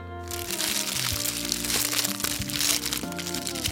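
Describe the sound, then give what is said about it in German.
Three fortune cookies crack and crunch open at once on a count of three, a dense burst of crinkling wrapper noise and brittle snaps lasting a few seconds, with no talking over it. “Die machen wir jetzt gleichzeitig auf drei auf, okay?”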